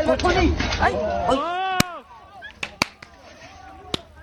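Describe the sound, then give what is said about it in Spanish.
Several sharp slapping cracks, made in a radio studio by the hosts imitating a slap, ring out at irregular intervals, four crisp smacks in all, as voices talk and murmur around them. “Y aquí mintiendo para radio, haciendo nosotros la cachetada.”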